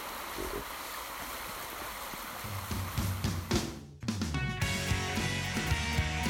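Steady rushing of a flowing river current carrying drifting pieces of ice, a broad continuous wash of water, with tonal music fading in over it during the second half.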